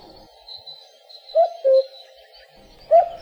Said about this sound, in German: Der Vogel der Woche ist der Ankömmling der Woche, der Kuckuck.